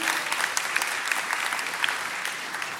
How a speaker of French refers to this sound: On peut les applaudir encore une fois très fort, s'il vous plaît.